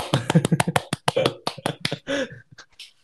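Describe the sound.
Light hand clapping, a quick run of soft, uneven claps over a couple of seconds that thins out toward the end, with a brief bit of voice mixed in.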